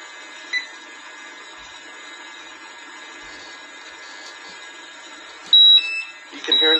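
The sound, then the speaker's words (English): A gas detector, testing oxygen levels through a test hose, starts its alarm near the end to signal a hazardous atmosphere: sharp high electronic tones in a couple of loud bursts over a steady mechanical whir that runs throughout. “alarm going off. That means that there is a hazardous atmosphere.”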